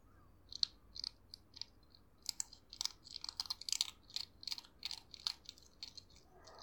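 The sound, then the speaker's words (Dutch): A hedgehog crunches dry cat food kibble with its sharp little teeth in quick, irregular bursts of small, crisp bites, fairly quiet, with no talking. “Nou, die eh, vlijmscherpe tandjes die eh, weten wel raad met droge kattenbrokjes, zoals je kunt horen.”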